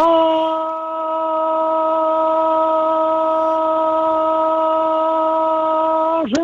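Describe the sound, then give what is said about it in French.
A voice imitates a hog-feeding call ("manger mes cochons"), performed live, holding one loud, steady, drawn-out note for about six seconds before it breaks off with a sudden drop in pitch at the end. “Bon, euh, faut que tu nous fasses un manger mes cochons live, OK?”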